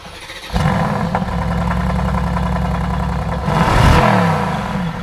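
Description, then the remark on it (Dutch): A two-seater car's engine cranks and catches after a brief pause, then settles into a steady, rumbling idle with a rising rev partway through, loud with no voices. “Er uh, zit veel in de motor, dus ik zal hem even aanslingeren voor je.”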